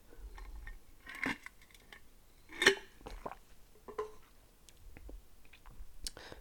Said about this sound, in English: Pause as I take a sip of my dwindling bevy.